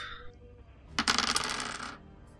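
A twenty-sided die clatters across a tabletop in a quick burst of rapid clicks lasting about a second, then settles into quiet. No voices.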